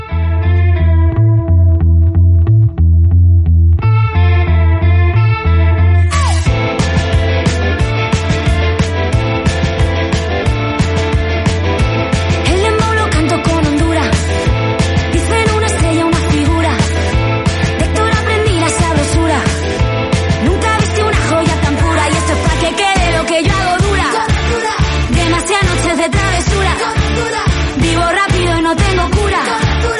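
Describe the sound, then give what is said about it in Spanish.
A recorded song plays loudly for a guest, starting with a sparse intro over a heavy bass pulse before the full arrangement bursts in after a few seconds and carries on with a steady, driving beat. “Mira, escucha esta canción, escucha, que te va a gustar seguro.”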